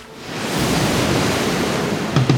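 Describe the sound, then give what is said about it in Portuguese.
Tide waves wash steadily onto a shoreline, a broad continuous rushing surf that swells in over the first half second and stays loud, with a couple of brief brighter splashes near the end. “É com os conhecimentos ancestrais de Elionice Sacramento e o som dos passarinhos e da maré que terminamos o quarto episódio do Ondas da Resistência.”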